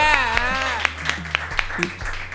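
Audience applause in steady rhythmic handclaps, roughly four sharp claps per second, with voices and cheering over them and a low continuous hum underneath.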